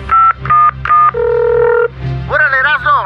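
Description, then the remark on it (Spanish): Three quick electronic keypad beeps from a phone being dialed to make a call in the show Choco Salvaje, followed by a longer steady tone, then a short warbling voice-like sound at the end. “Márcale al Migra”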